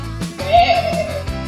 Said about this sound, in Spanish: sí oveja